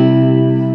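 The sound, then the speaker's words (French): A sustained open-voiced C major chord (C, G, E, with the second voice raised an octave) on an effects-laden guitar, loud and steady with a shimmering, chorused tone, ringing alone without any talking. “Voilà, donc, par exemple, Do, Sol, Mi. Et ça sonne comme ça, ça sonne super”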